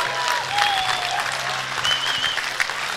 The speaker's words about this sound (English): I should have the biggest clap in this room that you could ever give.